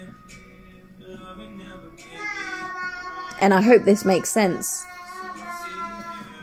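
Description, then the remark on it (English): An adult talks steadily while the adult's young daughter's high-pitched voice breaks in from the background with a short, lively burst of chatter, fairly loud for about a second. “And I'm sorry you can hear my daughter in the background, but it is what it is.”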